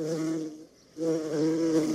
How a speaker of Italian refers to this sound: Io ti faccio fuori le mosche così non ronzano mentre registri.